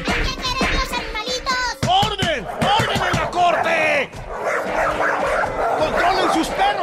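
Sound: small dog barking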